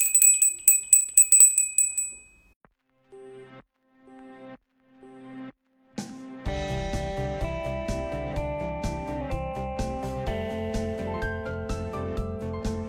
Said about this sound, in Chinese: 敲个铃，下课了。